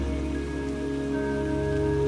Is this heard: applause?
no